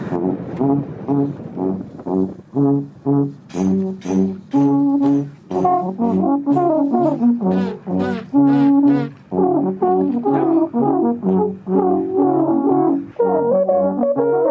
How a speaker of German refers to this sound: Wir spielen etwas Modernes, denn auf dem Alphorn lässt sich alles spielen, sagen die Männer, nur eben vielleicht nicht von mir.